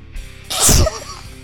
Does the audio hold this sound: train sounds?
no